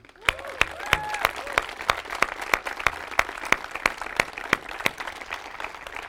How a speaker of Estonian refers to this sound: nii et, et teeme veel kõikidele esinejatele, kes on olnud siin, keda on olnud väga palju, teeme neile ühe suure-suure aplausi